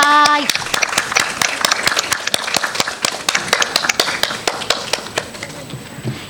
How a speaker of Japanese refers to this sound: 防災ちびっこ消防団の皆さんに改めて大きな拍手をお送りください